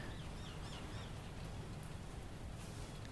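Steady, fairly heavy rain falls as a constant even hiss with a dense low rumble, no pauses throughout; a few faint bird chirps flicker briefly near the start.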